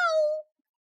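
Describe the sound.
A single voiced "meow" imitating a cat, spoken as the Cat Captain character in a children's story. It is a bright, tonal cry that glides slightly downward and lasts under half a second before cutting to silence.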